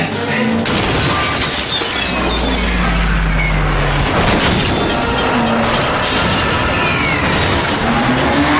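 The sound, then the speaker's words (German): Loud glass shattering amid a dense, continuous crashing din, with a deep rumble underneath and scattered bright tinkling fragments throughout; no voices. “Das war Glas.”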